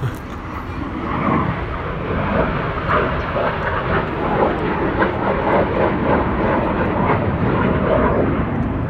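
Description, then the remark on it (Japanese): A steady, broad roar of an airplane passing overhead, sustained and fairly loud throughout with a dense low rumble and faint fluctuations, no voices present. “飛行機飛んでら。”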